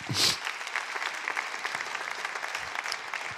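A church audience applauds Jesus steadily during a service, a dense wash of many hands clapping at an even level, with a brief louder burst at the very start and no talking over it.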